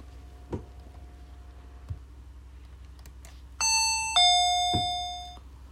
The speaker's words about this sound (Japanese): 宮田は恐る恐るインターホンを鳴らした。